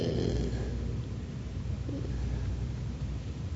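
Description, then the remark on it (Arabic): A voice imitates the snoring of one of two people snoring beside a sleeper, producing a low, raspy rumble that drones on steadily for a few seconds, with no talking around it. “كما قال احدهم نمت بالامس وكان بجانبي سماعتين استريو اثنان يشخران كل واحد بصوت هذا صوت ثم ياتي الثاني وهكذا”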